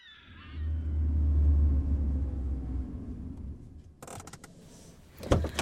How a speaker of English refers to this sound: The car draws up, and I step out into the mist of spring rain.